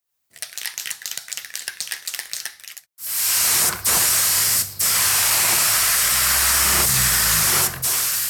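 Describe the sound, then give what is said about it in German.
A spray paint can rattles rapidly as it is shaken for a few seconds, then a loud, steady hiss of spraying follows, broken by brief pauses between long bursts, recorded during a graffiti workshop for women. “Diese wurden während eines Graffiti-Workshops von und für Frauen aufgenommen.”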